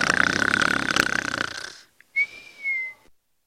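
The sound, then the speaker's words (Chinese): A father's loud, rasping snore with a whistly edge rattles for almost two seconds, breaks off into a pause, then a short snort and a thin, steady whistling exhale follow. No one speaks. “爸爸的鼾声总是断断续续的，使我担心火车出轨了。”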